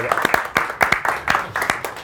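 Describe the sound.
An audience applauds, a steady patter of many claps over about two seconds, with some voices mixed into the clapping.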